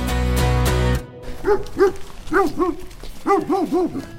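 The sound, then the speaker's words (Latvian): A large Pyrenean mountain dog, kept as a sheep guard, barks repeatedly, deep rounded woofs coming in quick pairs and triplets after a brief burst of loud music that cuts off abruptly. “Šie ir tie pirenēju. Jā, pirenēju kalnsuņi.”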